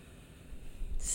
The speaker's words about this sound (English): Breathing in and out.